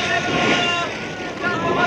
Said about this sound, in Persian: اما ناگهان دریا طوفانی شد و بلا فاصله بادها شدیدتر و شدیدتر شروع به وزیدن کرد